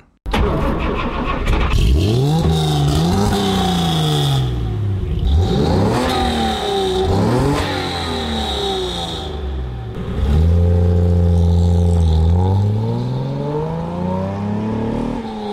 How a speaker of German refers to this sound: Und wie der 300 SL dann so klang, auch in Rüsselsheim, das hören wir uns jetzt kurz mal an.